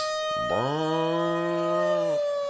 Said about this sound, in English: Um, I guess I guess it's time for a little air raid sirens.